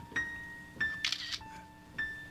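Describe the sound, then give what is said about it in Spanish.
A Kiev 4M film camera's mechanical shutter clicks several times, with a brief ratcheting film-advance sound in the middle, as a man photographs things; there is no talking. “Cuando de repente sentí ese peculiar sonido que hace una cámara, la cámara Kiev 4M.”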